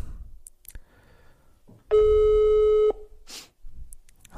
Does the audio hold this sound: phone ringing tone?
yes